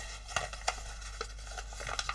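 Paper that is not real origami paper rustles softly as it is unfolded and creased while folding origami, with a few brief, sharp crinkles spaced out over a quiet background and no voices.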